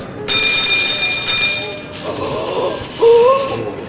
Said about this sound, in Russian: Вот дурак-то! Смотри, сколько кинул монет! Весь мешок высыпал. Смотри, что он делает. Целый мешок.